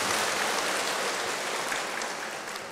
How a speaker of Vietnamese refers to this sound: có một số người vỗ tay có số người vỗ tay xìu xìu có người không dám vỗ tay người mà không vỗ tay là người đáng ngờ lắm nha người vỗ tay hăng ngái đó